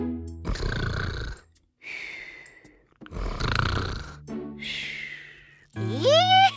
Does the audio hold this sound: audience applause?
no